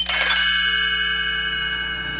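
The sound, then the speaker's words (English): A page-turn chime from a read-along record of The Haunted Mansion: one bright bell-like tone struck once, its clear ringing overtones holding steady and fading slowly over about two seconds, with no voices. “You will notice time to turn the page like this.”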